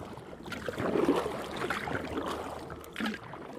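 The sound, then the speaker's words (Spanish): A boat travels on the Mayo River and its tributary, the Huascayaco, toward Moyobamba district, with a steady low rumble and a continuous wash of splashing and gurgling. The wash swells slightly partway through. No one speaks. “y luego en bote, surcando el gran río Mayo y su afluente, el Huascayaco.”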